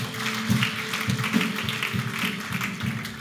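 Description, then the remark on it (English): An audience at a morning church service claps together as a clap offering to the Lord, a dense, steady wash of many hands that keeps a fairly even loudness throughout, with scattered sharper claps poking out of the crowd noise. “Come on, give the Lord a clap offering this morning.”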